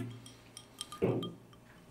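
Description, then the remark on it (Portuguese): Glasses clink together in a toast, a few light chimes followed by a fuller, ringing clink midway, over a faint background hum with no one talking. “Do nada uma coisa acontece, é isso, ó. Aquele brinde.”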